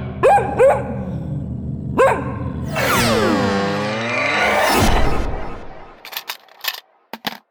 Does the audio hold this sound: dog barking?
yes